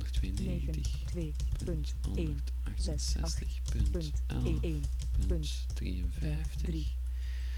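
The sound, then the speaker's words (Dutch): Quick keyboard typing, a run of light key clicks as an IP address (192.168.11.53) is entered into the host field of the FileZilla program, under a man's continuous talking and a steady low electrical hum. “Dan vul ik het IP-adres in dat we daar straks hebben gehoord.”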